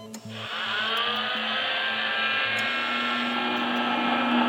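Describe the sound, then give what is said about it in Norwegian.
A surgical cranial drill, used by brain surgeons to bore holes in patients' skulls, spins up abruptly and whines continuously at high pitch, a loud, steady motorized whir with a low hum beneath it, no voices. “Lyden du hører nå, det er en drill hjernekirurger bruker til å bare hull i hodeskallen på pasientene som de skal operere.”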